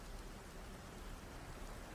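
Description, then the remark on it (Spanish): Steady rain pours down during a storm in a dense, continuous hiss, with a soft low rumble beneath it and no voices, filling the whole moment evenly at a moderate level. “Pero con esta tormenta es imposible ver...”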